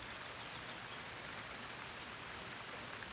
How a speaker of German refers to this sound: Und wenn die Regentropfen auf den Boden prallen, dann passiert noch etwas ganz Entscheidendes.